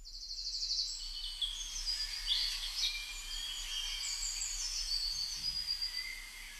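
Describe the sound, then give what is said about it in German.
A dense chorus of high, overlapping spring bird chirps and trills fills the air, steady and continuous, with a faint low hum of background noise and no voices. “Ich muss euch dieses Geräusch zeigen. Jeder von euch fühlt dieses Vogelzwitschern-Geräusch.”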